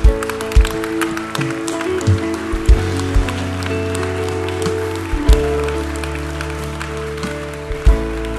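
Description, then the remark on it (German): An audience applauds steadily for several seconds, a dense, crackling wash of many hands clapping, with a few louder accents and low sustained tones humming underneath. “Wir geben dir nochmal einen Applaus.”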